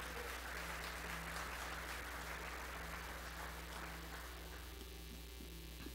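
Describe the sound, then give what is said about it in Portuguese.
An audience applauds the Lord Jesus in a steady, dense wash of clapping that fills the full six seconds at an even level, with a low electrical hum running underneath and no voices standing out. “Aplauda o Senhor Jesus.”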